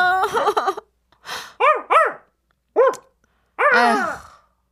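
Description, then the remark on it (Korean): A dog barks in loud bursts: a quick run of yappy barks, then several separate barks spaced irregularly with short silences between, ending on a longer, drawn-out bark. No one speaks. “천식이 개소리에 진짜 개가 짖고요.”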